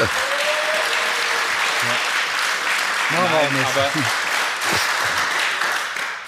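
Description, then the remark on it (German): Spectators applaud Bayern steadily throughout, a dense, even clatter of many hands clapping, with a man's voice speaking briefly over it midway. “ich freue mich, dass die Zuschauer klatschen bei denen, weil Bayern ist ja eine Weltklasse-Mannschaft.”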